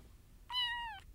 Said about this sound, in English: Ladies and gentlemen, Charlie Beans Roscoe, the miracle cat.